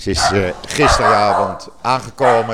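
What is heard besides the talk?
dog barking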